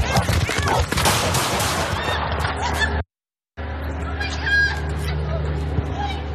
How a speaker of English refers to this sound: Two forty three shots fired.